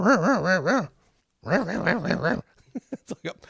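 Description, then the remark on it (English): Julie Kavner, voicing Marge as she tries to start the car, mimics a car engine struggling to turn over: two bursts of rhythmic, wavering groans, each sputtering out, then a few short breathy puffs as the engine fails to catch. “Marge is trying to start the car, and you can hear the distinctive voice of or, or the distinctive, sound of Julie Kavner, sort of mimicking the car engine as it struggles to turn over.”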